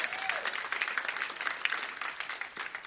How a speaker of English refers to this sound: Come on, let, let's clap everybody.